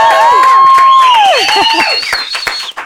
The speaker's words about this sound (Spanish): ¡Un aplauso!